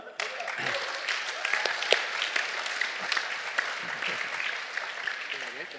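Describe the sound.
An audience claps steadily throughout, a dense crackling patter of many hands at a fairly even level, with a few brief voices and cheers rising through the applause.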